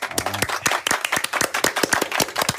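Several people clap together to welcome a guest on a show, a quick, uneven burst of sharp, loud claps that continue steadily for a few seconds, with no one speaking.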